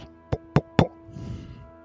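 household object, knocking on a door

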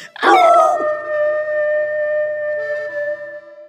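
animal, loud howl

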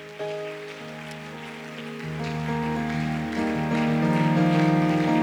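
crowd, audience applauding loudly

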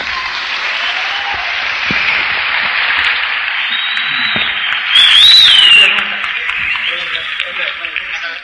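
crowd, audience applause

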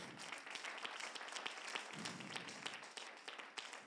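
crowd, audience applauding

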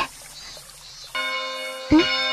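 signal or alarm, bell ringing

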